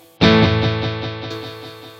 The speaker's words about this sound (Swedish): Och vi kan, vi kan ta ett snabbare eko så att ni, man inte hinner glömma bort och lite mer feedback. Precis. kan vi se hur det blir. Det här är mintläget.